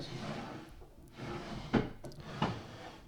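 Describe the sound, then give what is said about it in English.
Wooden desk drawers slide and knock as they are searched, with two sharper thumps amid steady rummaging and shuffling noises, no one speaking. “Before I get started, let me actually find that. I think it's pasted in one of these drawers.”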